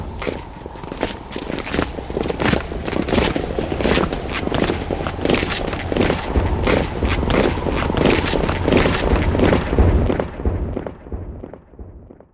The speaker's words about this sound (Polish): Te kroki wykorzystaliśmy później o wiele ciszej, na końcu pewnej sceny. Tutaj po prostu miały one mniej szokować, bardziej wzruszać. Do tych kroków jeszcze został dołożony wiatr i efekt był niesamowity.